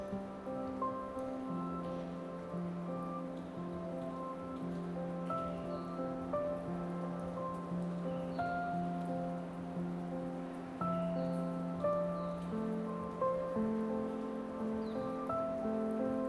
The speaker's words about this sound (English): Listen carefully for the wisdom inside the raindrops.